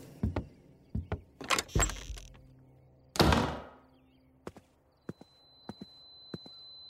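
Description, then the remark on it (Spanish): Footsteps of an angry man carrying a child thud across a hard floor toward a door, mixed with a few heavy knocks and a louder scraping clatter, then a slower series of distinct steps that fade into quiet. No one speaks. “Camina hacia la puerta sin voltear a ver a su mujer.”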